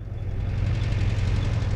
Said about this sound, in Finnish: Avolava-autot ajavat Nasafin kaduille, mutta nyt me emme pelkää. Autojen lavoille ahtautuneet miehet eivät etsi isän ja hänen kaltaisiaan, vaan diktaattorin puolueen jäseniä.